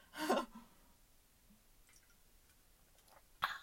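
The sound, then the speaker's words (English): A quick, wet sip of raspberry Peace Tea iced tea, a short slurping burst followed by near silence and a soft swallow, then a sharp little click at the end. “Um, I'm gonna take a sip of my peace tea. I'm sorry if this makes a weird sound.”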